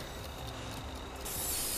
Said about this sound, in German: Die Tür öffnet sich und gibt dir einen Blick auf eine zyanfarbene Rutsche frei.